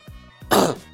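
A single throaty cough, preceded by a couple of low throat-clearing rumbles and ending in a loud, breathy burst, with no speech around it.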